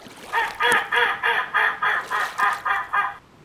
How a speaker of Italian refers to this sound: Siamo anatre.